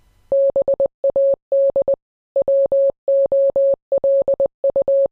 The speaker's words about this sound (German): Und du hast ja im Internet was gefunden. Wir können nämlich auch noch mal den Morsecode einspielen, der das sein sollte. Genau. Genau, der klingt nämlich so.